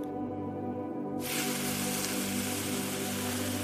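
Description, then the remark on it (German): Water with an herbal mixture is ladled onto hot sauna stones in a small sauna room, the first ladle of an infusion ceremony, bursting into a loud, steady hiss that starts abruptly after a brief quiet moment and keeps sizzling as the water turns to steam, with no one speaking. “Wie laut es zischt.”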